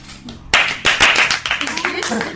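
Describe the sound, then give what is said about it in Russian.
After a brief quiet moment, a crowd bursts into loud, dense applause for a singer, many hands clapping in a steady wash that continues to the end, with some voices mixed in beneath. “Она заслуживает самых ярких аплодисментов”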